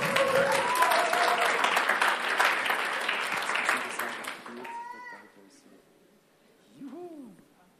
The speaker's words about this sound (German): Vielen Dank. Ohne die Techniker läuft hier nichts. Ja, einen kleinen Applaus.